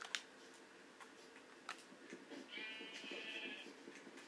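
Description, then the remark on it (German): A single nasal sheep bleat in a video game, wavering, rises over a quiet background scattered with faint clicks and ticks, lasting about a second. “Ah, da vorne ist auch ein Schaf.”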